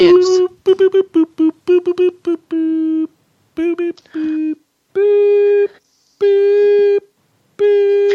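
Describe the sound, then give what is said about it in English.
A voice imitates random electronic beeps as an intro for a news segment, in a Morse-code-like pattern: a quick run of short, steady-pitched toots, then several longer held ones with pauses between, all at the same flat pitch. “Is that like spelling news in Morse code or something?”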